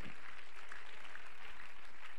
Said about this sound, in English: Somebody ought to clap their hands right there and worship the Lord a little bit.